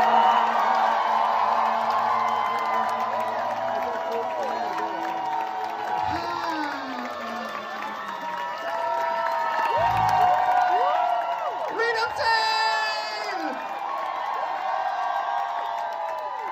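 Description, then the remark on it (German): A large crowd cheers loudly, with whoops, shouts and excited voices layered over steady applause, sustained at full volume throughout, as an audience applauds at the end of a performance by artists. “Und am Ende jeder Performance gibt es einen sehr lauten Applaus. Ich kann euch gerne mal so einen einspielen.”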